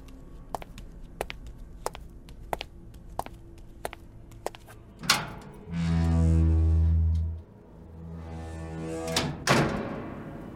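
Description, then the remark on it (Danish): Steady footsteps click along, then a heavy freezer room door grinds open with a loud, droning mechanical rush, followed by a low hum and a final clunk. No one speaks. “De går sammen over til fryserummet og åbner det op.”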